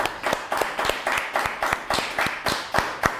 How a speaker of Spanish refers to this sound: Vamos a darle fuerte aplauso a las naciones otra vez más.